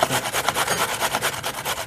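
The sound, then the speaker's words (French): Rapid, rhythmic rasping strokes of carrots being grated by hand, about eight scrapes a second, steady for the whole stretch, with no voices. “Je, suis en train de râper des carottes.”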